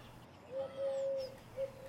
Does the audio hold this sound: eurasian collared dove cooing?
yes